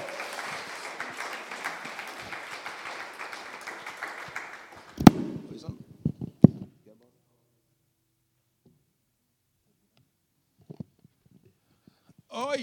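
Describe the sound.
Warm audience applause, a dense crackle of many clapping hands lasting about five seconds, then a few sharp knocks and shuffling before near silence, with brief voices returning at the end.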